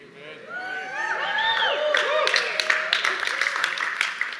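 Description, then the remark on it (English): A large worship audience, addressed as Breakthru and urged to make their praises loud, cheers and whoops with many overlapping voices, and scattered sharp handclaps join in about halfway through, building into a loud, sustained burst of praise. “I think it's really biblical to be loud with our praise and our worship.”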